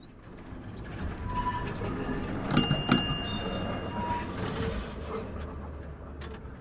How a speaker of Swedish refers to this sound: I Toves hemstad Helsingfors guppar spårvagnarna fram